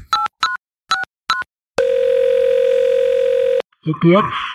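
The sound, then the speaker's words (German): Four short two-tone dialing beeps in a quick rhythm, followed by a long, steady telephone ringing tone lasting nearly two seconds while calling a grandmother by phone, then a voice begins speaking. “Ich muss meine Oma noch anrufen.”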